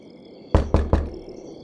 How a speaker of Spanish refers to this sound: Casi en cuanto se sentó, llamaron a la puerta, golpeando con fuerza como si quisieran derribarla